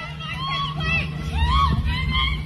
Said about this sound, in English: Chaos erupted on the Brooklyn Bridge last night. A driver plowed right through protesters. The car hit two people. A patrol car trying to pull over the vehicle also clipped a protester with its side view mirror. You can hear that.